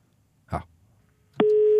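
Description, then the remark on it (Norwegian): A short muffled thump, then a steady, buzzy telephone ringing tone starts and holds at one pitch, fairly loud, as a call connects. No one speaks. “Da er vi på linje. Så venter vi på svar.”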